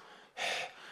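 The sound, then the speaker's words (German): A single short, breathy puff of air blown out, like someone exhaling heavily while out of breath, with nothing else around it. “Kommt Gott außer Atem so?”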